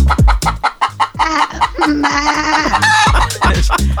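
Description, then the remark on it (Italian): A hen clucks loudly and rapidly, with drawn-out squawking calls in the middle, over a steady low rhythmic thumping; no one speaks. “Stanno parlando la pecora con la gallina.”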